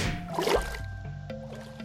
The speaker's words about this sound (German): So, so kommt man natürlich auch hier lang. Also wenn man den Wasserfall schwimmt.